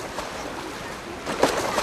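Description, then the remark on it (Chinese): Ocean waves at the opening of a song make a steady, hissing wash of surf that swells louder in the final half-second, with no voices present. “你进头听到那个海浪声，那个心情很开朗。”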